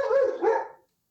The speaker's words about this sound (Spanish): Ese fue mi perro.